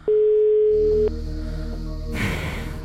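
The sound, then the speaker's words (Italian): A single steady ringing tone of an outgoing phone call to a listener sounds for about a second, loud and clear, followed by a faint open-line hum and a brief rustle of noise near the end. “Un altro squillo e poi mettiamo giù e proviamo l'altro.”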